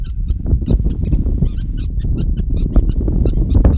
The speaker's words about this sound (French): c'est peut-être l'enseignement de ces weavers birds, ces petits oiseaux qui pèsent peut-être une dizaine de grammes